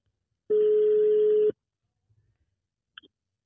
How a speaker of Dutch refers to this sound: Hey, we doen het volgende belletje, ja.